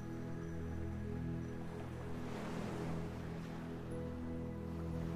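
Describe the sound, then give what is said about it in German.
A steady, whooshing wash of sound like ocean surf, made by audible breathing in and out, with one broad swell rising and fading in the middle, over a low constant hum; no one speaks. “Beim Ein- und Ausatmen kannst du ein Ozeangeräusch entstehen lassen.”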